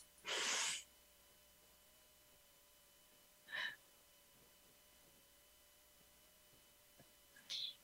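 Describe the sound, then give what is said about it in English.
A short, sharp, hissy breath, followed by long quiet stretches broken by two fainter, briefer breath sounds, as someone takes a deep breath in through the nose and out through the mouth during a grounding breathing exercise. No one speaks. “So I invite you to uncross your legs, take a moment for yourself, close your eyes, and just take a deep breath in through your nose and then out through your mouth.”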